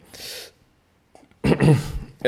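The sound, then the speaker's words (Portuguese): A short, sharp breathy intake, the build-up to a sneeze that never comes, followed by a pause and then a voiced exclamation. “Uh, ah, ai, aí a espirrar, não espirrei.”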